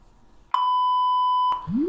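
A phone beep rings out as one loud, steady electronic tone held for about a second, then cuts off into a short upward-sliding chirp. No one speaks.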